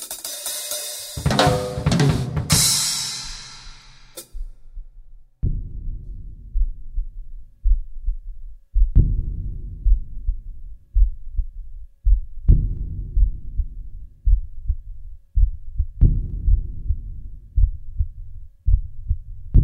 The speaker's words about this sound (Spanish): Secretamente, y sin que nadie se haya dado cuenta hasta ahora, una nueva moda se ha extendido entre nuestros jóvenes, el vicioso hábito de escuchar exclusivamente los latidos del propio corazón.